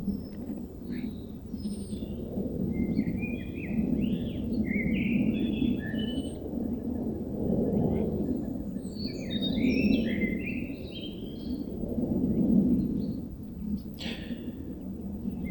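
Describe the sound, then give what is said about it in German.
A low, steady rumble of an airplane passing overhead, swelling and fading gently, while birds chirp and twitter in bright bursts above it. “Und dann könnt ihr aber auch eure Aufmerksamkeit mal auf was anderes richten, zum Beispiel auf das vorbeifliegende Flugzeug, was man jetzt hört.”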